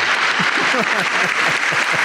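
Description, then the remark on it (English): A burst of crowd applause plays as a sound effect, a loud, dense, steady wash of clapping with faint voices murmuring underneath for about two seconds. “I got to dig up a big applause because it's been a minute, man.”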